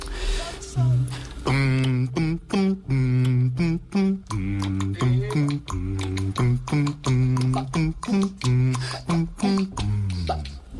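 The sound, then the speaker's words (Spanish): A low male voice, the bass singer of a swing vocal group, imitates a walking bass line, singing short, bouncy wordless syllables in a steady swing rhythm, clear with no accompaniment. “yo en … hago la voz del barítono y el bajo también”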